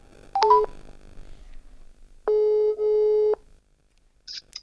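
A quick cluster of electronic telephone dialing beeps as a phone call is placed to the chairman of the Boongenootschap, followed by a steady, buzzing ringing tone that holds for about a second with one brief break, then a faint blip. No one speaks.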